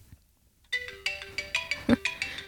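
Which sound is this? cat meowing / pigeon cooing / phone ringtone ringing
phone ringtone ringing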